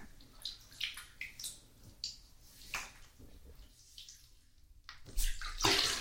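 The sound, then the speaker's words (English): Bathwater sloshes and splashes in a series of short bursts as a head is dunked in the bath to wash the hair, ending in a louder surge of water movement as the head is lifted back above the water. “Pinch your nose and close your eyes for me, okay?”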